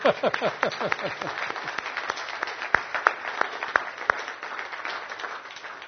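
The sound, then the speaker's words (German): An audience gives God a round of applause in thanks for the helpers present, a dense patter of many overlapping claps that holds for several seconds before thinning slightly toward the end, with no one speaking. “Und ich werde euch Gott dafür einen Applaus geben.”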